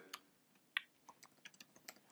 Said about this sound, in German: Was tippst denn du die ganze Zeit?